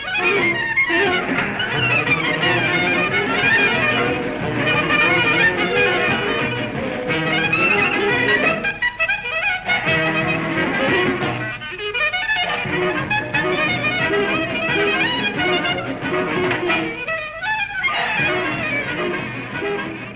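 A lively swing jazz recording plays loudly and continuously, with dense brassy instrumentation and a driving beat, and a few brief dips in the busy arrangement.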